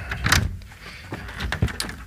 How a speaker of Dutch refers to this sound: Nou, ik loop nu naar de speelruimte toe, de deur. Het is hier een beetje een eh, halletje. Even kijken, de handvat.